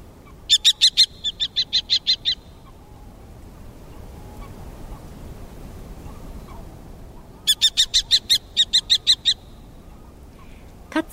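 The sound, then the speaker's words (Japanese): Two loud series of sharp, rapid common kestrel calls, each a run of about eight shrill repeated notes, separated by several seconds of quiet outdoor background hiss. “パタパタと浅い羽ばたきとよく響く鳴き声は遠くからこの鳥を見つける際の手がかりになります”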